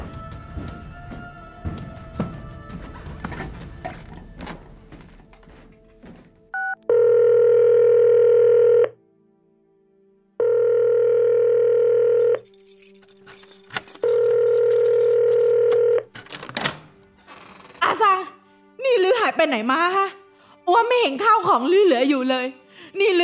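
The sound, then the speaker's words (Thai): A telephone downstairs gives three long, steady electronic tones in an even on-off rhythm after some faint handling noise, followed by a voice talking on the line. “โทรศัพท์ โทรศัพท์อยู่ข้างล่าง”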